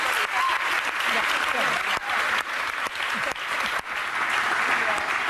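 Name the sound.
studio audience applause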